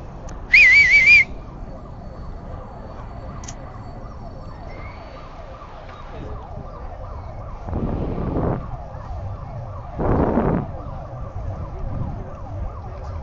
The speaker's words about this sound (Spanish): pasaban por los gritos, el chiflido, el ruido, la bulla, la algarabía, pero era para pasar porque el, el guía como que viene dormido todavía.